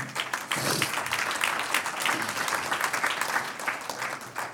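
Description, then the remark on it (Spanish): An audience breaks into sustained applause for the Lord, a dense, steady wash of many hands clapping at even loudness for several seconds, with no clear voices standing out. “Un aplauso al Señor.”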